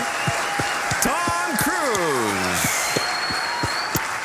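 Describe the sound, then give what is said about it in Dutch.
A crowd applauds steadily for several seconds, dense clapping with sharper individual claps popping out, while a sliding, falling whistle-like tone sweeps down in the middle. “Ja, applaus voor”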